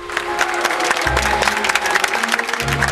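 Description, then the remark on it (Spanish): An audience applauds steadily, a dense wash of many hands clapping for the full three seconds, with a low sustained hum running underneath. “Pero también las producen el público y los aplausos.”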